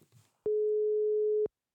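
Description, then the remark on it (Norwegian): A single telephone ringback tone while a call is being placed to a dermatologist: one steady, pure electronic beep lasting about a second, clear and prominent, with no talking over it. “ok, vi prøver å ringe.”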